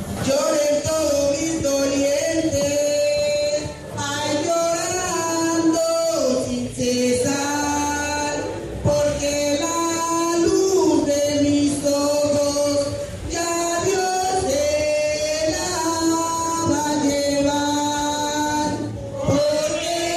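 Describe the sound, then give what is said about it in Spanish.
Women praise singers of the Pacific region sing a devotional chant together at a Eucharist honouring victims in the new municipal seat of Bojayá, sustained melodic phrases rising and falling loud, with brief breaths between lines and no instruments standing out. “Escuchemos un fragmento de sus cánticos.”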